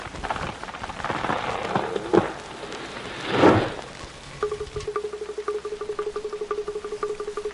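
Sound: rain falling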